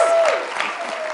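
A crowd applauds steadily, many hands clapping in a dense, continuous patter at fairly close range, with a faint tonal whine running underneath.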